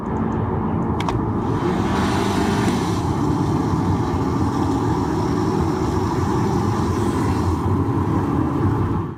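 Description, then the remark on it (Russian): A Kia car engine runs loudly and steadily, its low rumble carrying a dense, gritty rattle like poured rice from under the hood and engine shield, continuing without a break for the whole stretch. “А, из-под капота, из-под моторного щитка у них такой раздается звук сыплющегося риса, что ли.”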